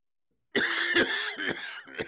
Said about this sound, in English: We were in the living room watching TV, and all of a sudden he went into this major coughing spell.